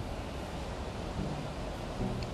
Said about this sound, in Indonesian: kalian dengar nggak sih kalau ini lagi hujan? Yes, lagi hujan jam 1 malam atau pagi, I don't know.